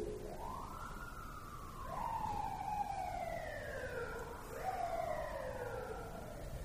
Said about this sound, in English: Now, of course, you're not going to be happy to hear a siren, but you will be happy that you're present to hear the siren. Because even that siren becomes the cause of our, of our um, awakening.